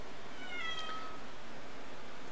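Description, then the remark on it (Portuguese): A single short kitten meow, fairly faint, rising briefly over a steady hiss of background noise with no voices. “Tem um gatinho miando aqui.”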